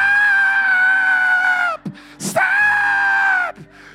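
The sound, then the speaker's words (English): A voice imitates a father with his kid screaming "Stop!" at the top of his lungs: two long, loud, sustained shrieks, the second slightly shorter, separated by a sharp, noisy gasp for breath. “And it was totally sarcastic because when the girls started jumping the guy, the father with his kid started screaming at the top of his lungs, Stop!”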